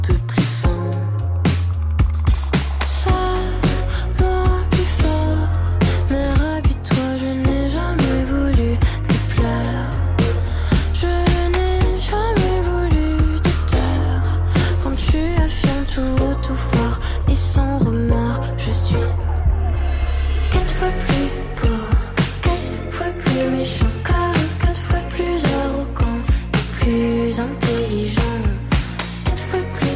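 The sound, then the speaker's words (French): A French-language pop song with a female singer from Luxembourg plays continuously at full volume, with driving bass and a steady beat under the vocal line. There is a brief thinner moment near the two-thirds mark. “On vient d'écouter euh, … de ….”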